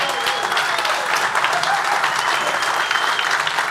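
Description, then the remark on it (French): Steady audience applause fills the room, a dense, continuous patter of many hands clapping at a fairly loud, even level throughout, with no voices standing out. “On est chanceux d'avoir, donc, oui, on peut les applaudir, s'il vous plaît.”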